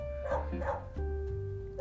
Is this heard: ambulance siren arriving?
no